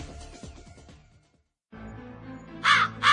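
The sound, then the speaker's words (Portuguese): A crow caws twice in quick succession, harsh and fairly loud, after a low murky rumble fades into a brief silence and a steady background hum returns. “Em nossa singela homenagem póstuma ao grande corvo,”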